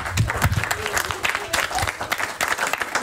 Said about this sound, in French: Bah, on l'applaudit alors.